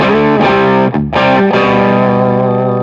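Electric guitar through a Klon-style overdrive pedal, played alone: thick, sustained driven chords ringing loudly, with a brief break and a fresh strum about a second in.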